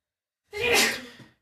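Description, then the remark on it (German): A single sneeze bursts out abruptly after a moment of silence, loud, with a breathy, hissing rush that trails off over about a second. “Tja, Gesundheit.”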